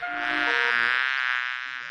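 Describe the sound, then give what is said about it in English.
A voice imitates a bee with a single steady, droning buzz held for about two seconds, fairly loud, with no talking around it. “He can go like a bee. Mr. Brown can buzz.”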